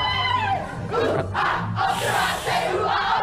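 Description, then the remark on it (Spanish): A large crowd chants together in loud unison, voices rising and falling in a rhythmic, song-like call that fills the whole moment with dense, rowdy energy. “Me suena, me suena de algo esta cancioncita, ¿no?”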